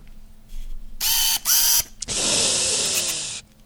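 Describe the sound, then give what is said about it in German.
A camera lens autofocus motor, on a lens without USM, whirs in three bursts: two short buzzing runs with pitch sweeps, then a longer steady whir lasting over a second, with no talking. “Ist der Autofokus laut oder ist er nicht laut? Warte, ich mach mal einen Autofokus, ne?”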